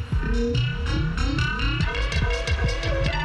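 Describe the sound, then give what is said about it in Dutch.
Experimental electronic music with warbling, dolphin-like synth chirps that slide and bend over a dense, throbbing low drone, steady and fairly loud throughout with no voices. “Wat voor elektronische dolfijnen is het?”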